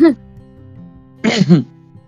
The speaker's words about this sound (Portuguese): Tive que tirar o pigarro, vai ter que cortar, tá?